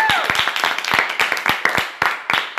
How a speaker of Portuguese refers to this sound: se vocês estão escutando aí, perceberam, as nossas palmas hoje não são sample, né? Temos palmas físicas aqui, palmas orgânicas, Humanas. presenciais.